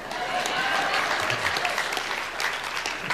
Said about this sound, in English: That's a good place to clap. You, you can just go ahead and clap.